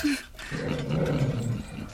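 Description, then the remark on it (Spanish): A frightened dog named Jim growls low and steadily, a rumbling snarl that holds for about a second and a half after a brief higher yelp-like note at the start. “¿Qué te pasa, maldito perro? ¿A qué le tienes miedo?”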